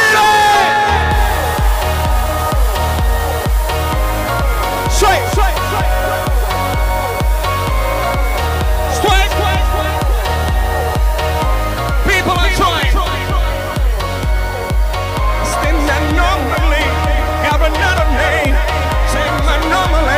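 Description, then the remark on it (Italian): A large crowd at Villa Bonine, Italy, cheers and shouts continuously, loud, with whoops and yells rising over a dense roar of voices that never lets up. “L'Italia vi ascolta. Villa Bonine, fatevi sentire.”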